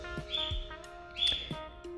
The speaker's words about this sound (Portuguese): E acho que agora piorou, né? Porque a ave tá piando mais do que antes. Mas enfim ela que lute.